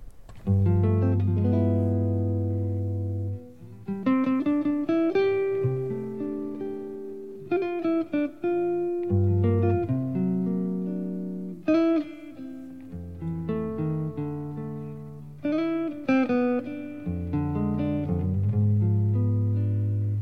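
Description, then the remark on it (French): A slow, mellow jazz ballad plays steadily, with warm sustained chords over a soft bass line and a lyrical melody gliding on top, recorded close and full throughout. “On va justement écouter un extrait, si c'est possible, du morceau …”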